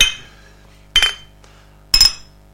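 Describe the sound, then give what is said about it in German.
Glasses clink together three times in a toast at roughly one-second intervals, each a bright ringing tap that fades quickly, with quiet pauses between and no talking. “Okay, Prost.”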